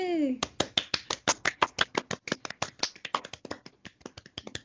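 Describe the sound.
A short rising voiced whoop, then quick, steady hand clapping: dozens of sharp, crisp claps in a fast, slightly uneven rhythm that carries on for several seconds.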